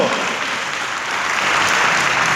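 An audience claps steadily, applause given to the Lord, a dense wash of many hands that holds loud and even throughout, swelling slightly toward the end.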